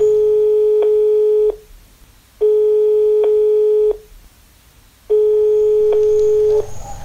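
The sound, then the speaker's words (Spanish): A telephone busy signal sounds three times, each steady electronic tone lasting about a second and a half with short silent gaps between, loud, with no one speaking. “alarga la mano a un teléfono desconectado.”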